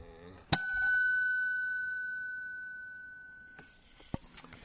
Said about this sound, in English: A ding dong ding.